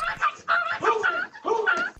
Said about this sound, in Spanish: Es el momento en el que Blackie, la mascota de la familia Polanco, llora y agoniza entre las fauces de un perro pitbull que se metió en la casa de sus vecinos.